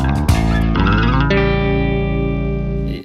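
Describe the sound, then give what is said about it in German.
A short, loud electronic jingle with dense, sustained harmonic tones and a few quick chord changes, processed with distortion and chorus effects, ending abruptly after about three seconds. No one speaks. “Und dann gehört gleich nach äh, unserem Jingle die Bühne dir.”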